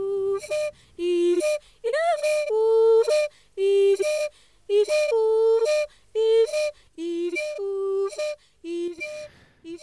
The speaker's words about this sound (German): Und zwar äh, handelt es sich um Hindeo-Musik, eine Babenzele-Pygmäen-Musik aus Afrika.